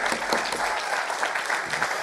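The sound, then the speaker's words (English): A church audience claps loudly and steadily during a sermon, a dense wash of many hands without pause for the full two seconds. “If we're going to clap, let's clap big there.”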